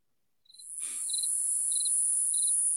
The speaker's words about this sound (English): It was a cricket sound effect. I was going to make fun of Weldon right here.